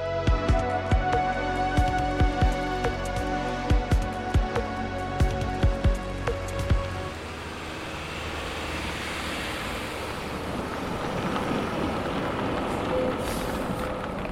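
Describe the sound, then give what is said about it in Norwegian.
Street traffic at Skøyen, where the speaker gets off the bus, with a steady engine hum and repeated clattering knocks for several seconds, then giving way to a broad, continuous roadway roar as vehicles pass. “Det her er lyden av eh, litt tilfeldig trafikk og det kan jo virke litt tilfeldig.”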